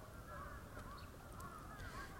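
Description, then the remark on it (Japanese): Faint crows cawing in a steady stream of harsh, overlapping calls, with no one speaking and a low background hum underneath. “そうカラスねいや本当にねだってほらカラスってなんかもういろんなもの持ってったりとかニュースにもなってるけどどんどん頭良くなってくでしょなんかね集まってきちゃうんだよね”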